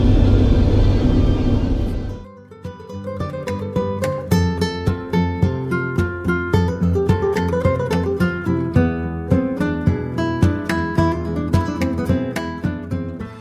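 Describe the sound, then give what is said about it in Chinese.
A steady, loud airplane cabin engine drone, on a flight over the Pacific Ocean to Auckland, fills the first two seconds, a dense low rumble, then abruptly gives way to music with rhythmic, plucked or piano-like notes. “在飞机上的时间不算长，也不算短。”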